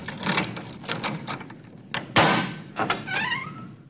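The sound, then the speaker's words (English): A door opens with one loud thunk, preceded by a flurry of small clicks and rattles and followed by a brief squeaky whine as it swings. “Open the door, it's cold out here.”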